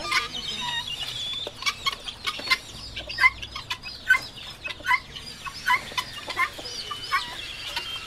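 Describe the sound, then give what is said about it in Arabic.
Several Pharaoh breed chickens cluck repeatedly, short bursts overlapping in an uneven, busy rhythm with light background bustle and no talking. “فرعوني دجاج فرعوني اوكي هذا بسيط زي الحمام ما عندك”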